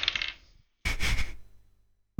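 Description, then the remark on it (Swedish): Two separate bursts of a twenty-sided die clattering and rolling across a hard surface, the second louder and longer, each settling out into silence, with no talking. “Uh, jag tänker be er båda kasta en 20-sidig tärning.”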